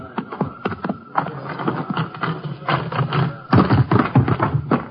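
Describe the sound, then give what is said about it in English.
Horse hooves clip-clop in a steady, uneven rhythm of sharp taps and dull thuds as a sheriff and a ranger ride in together where Maravillas Creek runs into the Rio Grande, continuing throughout with a busy, rustling background underneath. “I'll get my horse and ride in with you ways.”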